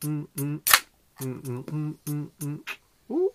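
A Topo Chico bottle cap pops off with a sharp, brief hiss, fairly loud, surrounded by a man's rhythmic, drawn-out vocal sounds before and after.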